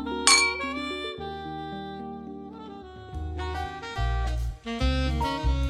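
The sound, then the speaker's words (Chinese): A single bright clink of glasses in a vodka toast rings out at the start, shimmering briefly, before a melodic music track with a deep bass line takes over and continues throughout. “今天我们要喝杯沃德嘎，来点烈的，谈一个让人燃烧的话题，好吧？我们碰杯。”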